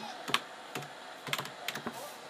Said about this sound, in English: I'd be faster at typing if I knew how to spell, but I'm still fast at typing.